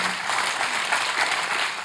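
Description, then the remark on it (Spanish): An audience breaks into sustained applause for the Spirit, a dense, steady wash of many hands clapping at an even loudness throughout, with no individual claps standing out. “Por la acción del Señor, que es el Espíritu un aplauso a él.”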